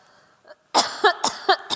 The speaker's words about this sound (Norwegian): Unnskyld. Ikke lett å hoste med den her.